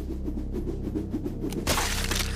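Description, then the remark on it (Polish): A low, steady droning hum runs throughout, then a sudden loud, crunching crack of skull bones, struck at the temple by a twisted metal rod, bursts out near the end and rings briefly before fading. No one speaks. “Słyszę tylko chrupot pękających kości czaszki.”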